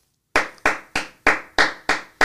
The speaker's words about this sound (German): Ne, da rüttelt jemand an der Tür. Ist wahrscheinlich eine, eine Einbrecherbande.